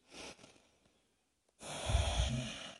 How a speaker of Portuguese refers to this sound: mas eu foco minha atenção ali na minha respiração, no ar entrando e saindo, como uma forma de tirar a atenção dos meus pensamentos mas logicamente os pensamentos vão surgir. Eu vou focar minha atenção na respiração.